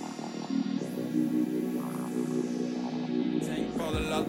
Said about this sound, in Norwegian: vi skal høre en låt. Uh, her kommer '…' av ….